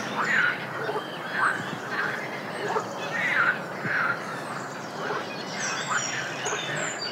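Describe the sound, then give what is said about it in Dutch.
A chorus of frogs croaking, with raspy, quacking calls repeating and overlapping at a steady pace over a constant noisy background, fairly loud throughout and with no voices. “Kikkers en... Het was toen we aankwamen nog luider dan nu, denk ik.”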